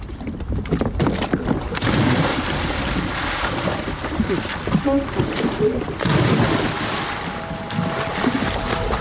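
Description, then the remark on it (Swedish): A person does a cannonball jump into a lake in Sweden in summer, plunging in with a heavy splash, followed by churning, sloshing water and steady wind rumble buffeting the microphone throughout. “Nu kör vi. Kanonkulan.”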